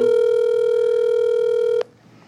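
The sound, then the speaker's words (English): A single long ringback tone on an outgoing phone call, a steady electronic buzz that holds for almost two seconds before cutting off abruptly into near silence. “Sorry I couldn't answer the phone right now”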